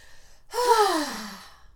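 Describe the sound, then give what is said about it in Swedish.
A single deep, deliberate breath drawn in, lasting about a second, with a faint voiced tone that falls away at the end. No one speaks. “Ah, ah, vi andas.”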